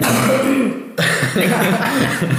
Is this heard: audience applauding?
no